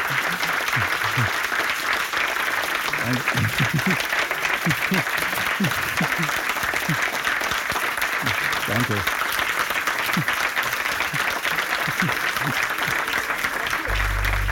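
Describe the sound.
Sustained audience applause, dense steady clapping from many hands at an even loudness for the whole stretch, with a few faint voices mixed in.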